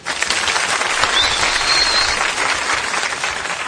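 Steady applause from a crowd, a dense crackle of many hands clapping at an even loudness throughout, with no voices over it.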